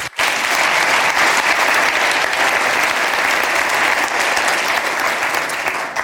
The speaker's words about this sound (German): Ich möchte auch deine Frau herzlich willkommen heißen. Schön, dass du auch da bist. Gebt ihr doch auch einen Applaus.